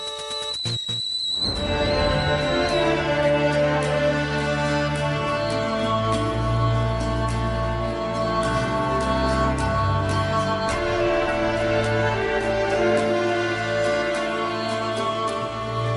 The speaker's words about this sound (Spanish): Bien, están escuchando de fondo el OST Original Soundtrack de Went.